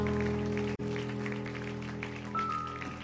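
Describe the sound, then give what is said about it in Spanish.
A large church audience claps steadily and continuously as an applause to God for his word, over sustained keyboard chords, with a brief dropout near the start before the applause resumes at an even level. “¿Cuántos pueden darle un aplauso a Dios por su palabra”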